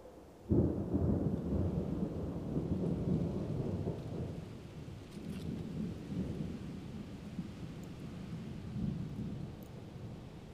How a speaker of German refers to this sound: Der Sturm ist jetzt fast über dir, aber du selbst bist ganz ruhig, ganz sicher, weil du weißt, dass du den Sturm selbst kreierst und dir gar nichts passieren kann.